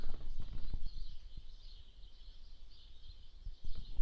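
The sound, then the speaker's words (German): A dense, continuous chatter of many sparrows chirping together in a hedge outside that is full of them from top to bottom, a steady high-pitched twittering wash, with occasional low thumps and rustling. “Und diese ganze komplette Hecke ist von oben bis unten voll mit Spatzen. Und die machen einen Heidenlärm.”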